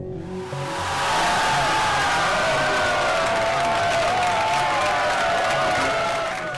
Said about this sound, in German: Jubel bei der CDU in Nordrhein-Westfalen.